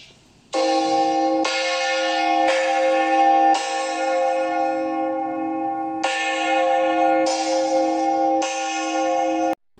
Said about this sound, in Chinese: 熊老师把钟敲响，他要开始上课了。